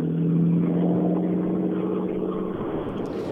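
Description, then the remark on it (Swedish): A steady, low engine rumble fills the inside of a moving car, a continuous droning hum with a faint tonal whine that eases slightly toward the end. No one speaks. “Det känns som det är lite påslag här i bilen.”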